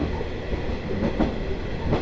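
The JR Shikoku Ai Yoshinogawa sightseeing trolley train on the Tokushima Line, running from Awa-Ikeda toward Sadamitsu, rumbles steadily along the rails, with a dense low roar and a few soft rhythmic clacks of wheels over track joints rising briefly above the constant noise.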